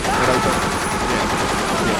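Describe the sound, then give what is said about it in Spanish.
A loud, continuous burst of rapid machine gun fire, the shots blurring into a dense, harsh rattle that holds steady for about two seconds. “ya ha decidido unilateralmente que era metralleta y yo estoy de acuerdo.”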